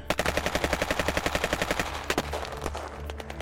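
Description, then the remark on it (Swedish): Rapid bursts of automatic gunfire from over by a train station, a fast steady string of shots for about two seconds followed by a few scattered single cracks, sounding somewhat distant with a faint rumbling background. “Bortifrån tågstationen så är det en bil som slirar och du kan höra där bortifrån också någon eldgivning.”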